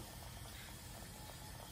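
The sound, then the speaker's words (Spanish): A pot of broth seasoned with Knorr Suiza, saffron, pepper and salt at a steady rolling boil on the stove, just before rice is added and with the heat turned down. Dense, continuous bubbling and popping at a low, even level, and no voices. “Ya está hirviendo, así que ya le vaqué al fuego.”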